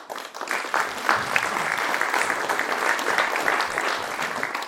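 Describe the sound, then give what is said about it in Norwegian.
An audience at a Stavanger, Norway, local election event applauding steadily, a dense patter of many hands clapping for each other at an even level throughout, with no voices standing out above it. “Veldig koselig å se når de klapper for hverandre.”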